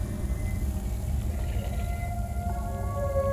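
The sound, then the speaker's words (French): Wind moans through tunnels with a low, flute-like hum, wavering tones sliding over a steady rumbling roar, growing a little stronger toward the end. No one speaks. “Le vent s'engouffre dans les galeries tout autour. Il résonne comme une flûte grave et irrégulière annonçant la tombée de la nuit.”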